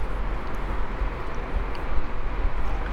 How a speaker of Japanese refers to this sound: この遠くで稲妻がピカピカ鳴ってるのを眺めながら、鴨川に座ってるっていうのをえー、ちょっと音でもねうまく表現できているといいんですけど